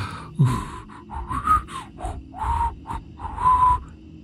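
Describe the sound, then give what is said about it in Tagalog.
Someone tries to whistle but mostly produces airy, breathy puffs, about six short bursts in a row with only faint, wavering tones breaking through. No one speaks. “Ano bang klaseng sipol yan?”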